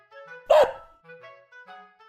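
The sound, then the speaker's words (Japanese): A single sharp dog bark rings out loud, brief and punchy, set against faint, steady sustained tones that continue softly before and after it. The dog Shiro barks under a big tree at the edge of a field, leading an old man there. “畑を耕していると、一緒についてきた白が畑の隅にある大きな木の下におじいさんを連れて行き、ここ掘れ、ワンワン。ここ掘れ、ワンワン。と泣きました。”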